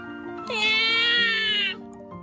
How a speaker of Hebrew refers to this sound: בכה התינוק.